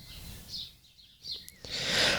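Faint birdsong, a few scattered chirps and trills rising over a soft outdoor background hiss, with no one talking.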